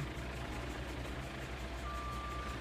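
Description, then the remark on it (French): A heavy construction truck at roadworks rumbles steadily, its engine drone filling the scene, and one sustained high-pitched reversing beep sounds near the end. “Mais les travaux, le bruit des moteurs aussi est rouge.”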